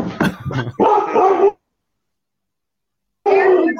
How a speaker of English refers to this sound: The one that you hear is, is extremely jealous. If you don't pet him, he, then he starts barking at and you howling. and howling. So he, he has your attention.